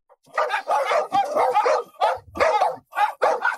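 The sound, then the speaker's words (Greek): Dogs at a huge villa surrounded by railings bark fiercely and continuously, loud overlapping barks coming in quick, irregular bursts with barely a pause between them. “Τα σκυλιά γάβιζαν αγριωμένα, δεν τολμούσαμε ούτε να πλησιάσουμε.”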